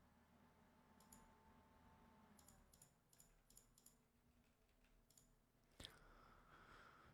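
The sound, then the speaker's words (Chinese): Quiet computer keyboard typing and mouse clicks: scattered sharp taps in short bursts and irregular clusters, with one louder click near the end, over a low steady background hum. No one speaks. “就是你能在我这儿听到这么清晰的键盘和鼠标声，啊，说明你好厉害啊！”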